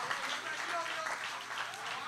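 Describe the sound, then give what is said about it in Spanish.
An audience applauds for the Lord in a steady, dense wash of clapping that holds at an even level for about two seconds, with some voices mixed in under the applause. “Denle el aplauso mejor de ahí al Señor.”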